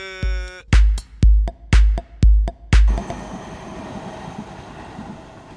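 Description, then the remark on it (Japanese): On a hot day, a train passes a railway crossing near Oizumi-Gakuen Station in Japan: a brief tonal horn-like note, then five loud, evenly spaced clacks of wheels over rail joints, fading into a steady broad rumble of the moving cars. “大泉学園駅の近くの、え踏切を渡り、えー、駐輪場で自転車拾って帰るとこです”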